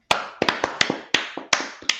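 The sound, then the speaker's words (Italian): Scattered applause from the audience at the end of a live show: about ten sharp, crisp claps in an uneven rhythm, each cleanly separated rather than blending into a dense ovation. They are fairly loud, and no voices can be heard. “Un applauso, dopo... un applauso, dai.”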